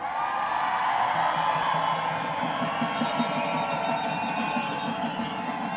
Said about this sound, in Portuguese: A multidão berrava impressionada.